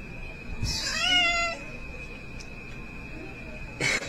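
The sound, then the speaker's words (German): A single drawn-out cat meow, clear, rising and falling in pitch over about a second, followed by quiet background with a steady high tone and a brief noisy burst at the end. “Oh Gott, das ist mit der Katze.”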